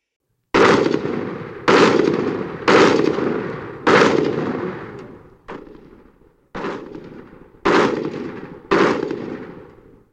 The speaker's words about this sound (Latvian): Pēc kādām 20 sekundēm viņus pamanīja separi un atklāja nepārtrauktu automātu un ložmetēju uguni.